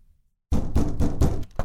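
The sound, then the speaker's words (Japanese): Loud knocking on a door of the Hayashi family house, done while going round all its doorways looking for an opening in the locked-up house, about five firm raps in a fairly steady rhythm after a brief moment of silence, with no voices. “国枝さんのお嫁さんとお姑さんが出かける時に厳重に鍵を利かせた戸締まりのどこかに隙があるかと林家の戸口という戸口を四十男と叩いて歩き回りましたですがどこにも隙はありません”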